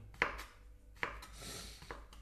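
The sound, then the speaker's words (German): A knife slices mushrooms on a cutting board, halving them and then cutting thin slices crosswise, with three distinct crisp chops spaced about a second apart, fairly quiet against a soft background hiss. “Das geht ja relativ einfach so äh, Champignons zu schneiden. Also einfach halbieren und dann quer dazu dünne Scheiben runterschneiden.”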